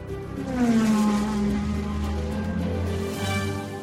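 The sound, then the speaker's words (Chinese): A taxi's engine roars and revs as it pulls away quickly, a steady loud drone with a rising whine that holds for several seconds before easing slightly. “华生深深地向史密斯先生一鞠躬，匆忙走了出去，随即跳上了计程车。”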